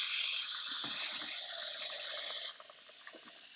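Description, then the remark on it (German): Water pours steadily from a kitchen tap into a small pot, set up to cook Gräubchen, with a bright, hissing rush, then cuts off abruptly partway through, leaving only faint dripping and quiet kitchen noise. “Und ich setze jetzt einfach mal Wasser an für die Gräubchen in kleinen Topf.”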